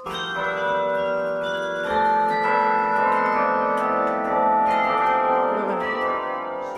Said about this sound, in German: Die Glocken muss man ganz speziell gießen. Die, sind, die werden ein bisschen anders gegossen als die Kirchturmglocken und das ist in Holland erfunden worden.